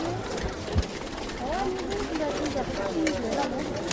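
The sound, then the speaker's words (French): Several hundred prayer wheels along the fence surrounding a stupa, turned by people, make a continuous rattling, clicking clatter, with a murmur of voices and a few high chirps woven through it. “toujours le bruit des moulins prières qui tournent.”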